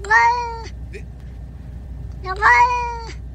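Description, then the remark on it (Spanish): A cat in a video lets out two long, drawn-out meows, separated by a pause, each with a wavering, speech-like contour said to sound like words in Japanese. A low steady hum sits underneath. “Y oigan, el gatito, ¿cómo, cómo?”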